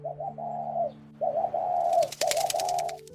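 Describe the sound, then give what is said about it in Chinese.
A dove coos in a run of soft, rounded phrases broken by short pauses, over a low sustained hum, with rapid rustling, flutter-like bursts joining in toward the end. “鸽子啊，你怎么那么快就飞回来了？”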